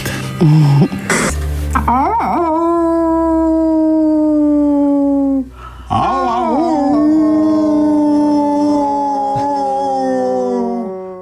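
A wolf howls loudly in two long, sustained calls, each rising then holding a steady drawn-out tone, preceded by a brief rough burst of noise.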